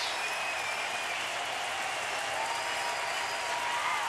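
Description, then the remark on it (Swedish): A large baseball stadium crowd in Philadelphia gives a standing ovation as former Phillies pitcher Cole Hamels comes to the plate: a dense, continuous wash of clapping and cheering, holding at an even, loud level throughout with faint whistles threading through the roar. “They give him a standing ovation.”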